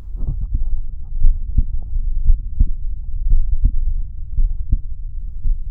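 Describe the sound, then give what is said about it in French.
A steady heartbeat thumps, its low paired beats repeating about once a second over a faint rumbling background, with no voices present. “Vous entendrez battre votre cœur, parfois vous pourrez entendre vos poumons, votre estomac gargouillant bruyamment.”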